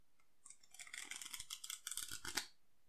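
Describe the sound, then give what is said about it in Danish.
A deck of playing cards being riffle-shuffled by someone learning to shuffle cards: a dense, fluttering burst of rapid papery clicks lasting about two seconds, building slightly before ending with a final snap. No voices. “Det er fordi, at øh, jeg er i gang med at lære at blande kort.”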